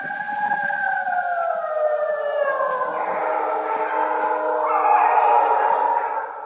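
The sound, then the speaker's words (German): A person imitates wolf howls and real wolves answer: several long, wavering howls overlap at different pitches, sliding slowly downward and then swelling again in a sustained, fairly loud chorus with no talking. “es klang offensichtlich so täuschend echt, dass die Wölfe dann tatsächlich auch geantwortet haben.”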